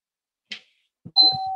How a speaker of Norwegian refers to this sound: Nå ringer det på døra her, så nå er det på tide tide å...